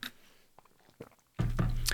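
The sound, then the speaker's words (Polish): Wet gulping as someone drinks water, a few soft swallowing clicks at first, then a louder, fuller burst of swallowing sounds. “A, oczywiście, wody, byk, byk, byk, byku, byku.”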